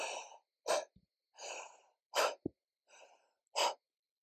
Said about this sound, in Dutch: Het kan zo zijn als jij voor de eerste keer de verbonden ademhaling zou gaan doen, van één tel in of drie tellen in, één tel uit. Dus dat zou eens eh, klinken van.